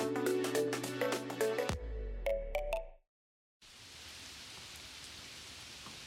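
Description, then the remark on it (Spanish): A few seconds of musical tones stop, and after a short silence a steady, dense hiss of heavy rain follows, large hard drops pattering and splatting against a balcony. “Llueve todo el tiempo, afuera tupido y gris, aquí contra el balcón con goterones cuajados y duros que hacen plaf y se aplastan como bofetadas uno detrás de otro.”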